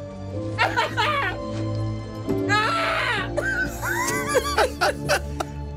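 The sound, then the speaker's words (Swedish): A voice imitates a panicked scream mixed with crying, reenacting how the speaker sounded while watching a film scene: strained, wavering wails and choppy sobbing bursts, some catching like half-laughs, over a steady low hum. “det, det, det kommer liksom en panikartad skrik där, slash gråt.”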